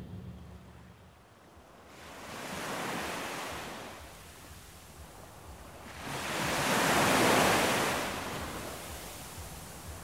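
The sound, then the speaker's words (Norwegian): Ocean waves wash onto a deserted sandy beach in two broad surges, each swelling into a hissing rush of surf and then receding, with a steady low roar between them and no voices. “Dere våkner eh, neste morgen og kjenner at bølgene slår ikke bare inn mot land, de slår inn over beina dine.”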